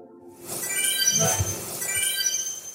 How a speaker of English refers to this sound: Ah, I love that sound. That's the sound of wishing on shooting stars in Animal Crossing which I played a lot of at the beginning of the pandemic.